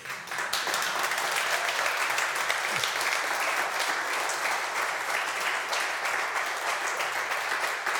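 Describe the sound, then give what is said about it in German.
Steady, hesitant audience applause fills the whole stretch, a dense wash of many hands clapping at an even, moderate level without building up, no single claps standing out. “Oder war der zögernde Applaus dann auch der Zweifel daran, ob das mit dem Neuen wirklich so willkommen ist?”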